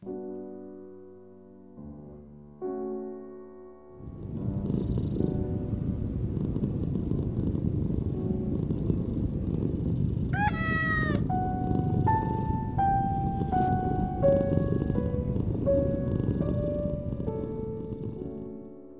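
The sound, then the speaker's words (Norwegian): A domestic cat purrs steadily, rumbling on continuously after a few opening musical notes, with a gentle melody of stepped tones playing over it later on. “Og hvis du er en dame, vil du kanskje bli glad for å høre at de fleste katter liker damer best.”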